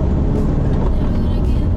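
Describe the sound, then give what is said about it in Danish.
A sports car roars as it accelerates hard at a sports car event, speed climbing from 130 to 207, a loud, dense, continuous engine and road rumble holding steady for under two seconds. “130, 140, 150, 160, 170, 180, 190 og 200 207.”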